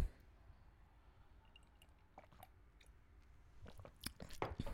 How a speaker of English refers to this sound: all right oh jesus christ i need a sip of something i'm so sorry girls